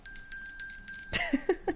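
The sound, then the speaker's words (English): A bright bell rings rapidly and continuously for about a second, its metallic tone sustained under quick repeated strikes, followed by a few short vocal exclamations. “Well, we actually get to ring the bipartisan bell.”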